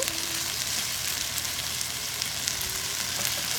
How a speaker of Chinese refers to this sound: 好，我们现在在外面做这个咖喱鸡肉饭，OK。 加点油煎鸡肉。 嗯， 这个不不想在房车做，因为会烟比较大，要尖椒鸡肉，怕会引起警报器狂响。